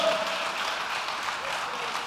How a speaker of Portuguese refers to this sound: Aleluia! Dá um aplauso aí, pelo amor de Deus.